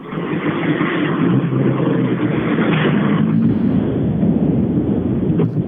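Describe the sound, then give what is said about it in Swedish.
The engine of an orange Toyota Corolla rally car roars loudly and steadily for several seconds, a rough, throaty growl that surges slightly in pitch partway through, with no voices. “Nu är det en intressant bil, för nu står det en orange Toyota Corolla eh, nere i TK.”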